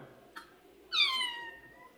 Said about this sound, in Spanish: El gato les dice hola.